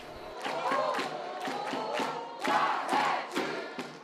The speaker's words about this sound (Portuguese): Ganham em popularidade os mais animados quando sobem ao palco e na hora de sair dele também. Alguns têm até grito de guerra para o final.